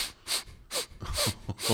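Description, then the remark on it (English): A voice imitates an animal sniffing heard at about 2 a.m. while camped out: five quick, breathy sniffs in an uneven rhythm, fairly loud, with no talking. “another friend out there, and I heard this sniffing.”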